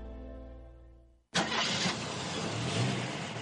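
A car engine cranks with a low droning whine, then abruptly catches and roars to life, settling into a loud, steady rumble.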